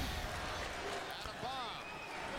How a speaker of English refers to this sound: Small round of applause there by the uh, Poughkeepsie crowd.